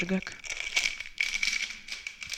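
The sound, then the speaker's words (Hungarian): Someone rummages through a bag, with continuous, irregular crinkling and rustling bursts that rise and fall for a couple of seconds. A brief voice sounds at the start. “nagyon pakol valamit. Táskám.”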